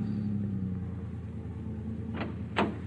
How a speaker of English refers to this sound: Finally, you bring the car to a stop in front of Tommy's boarding house.